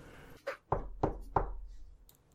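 Knocking on a door, a light tap followed by three heavy, evenly spaced thuds, solid with a dull wooden boom, then quiet.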